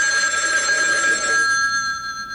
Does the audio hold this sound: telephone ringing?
yes